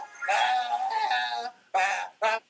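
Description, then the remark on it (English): A child, dressed as a unicorn, tries to sing "Happy Birthday" in the voice of a goat: one long quavering, wavering bleat followed by two quick bleating bursts, loud, no other talk. “And I believe … … was trying to sing "Happy Birthday" in the voice of a goat because oh, I think that's how he thinks unicorns sound.”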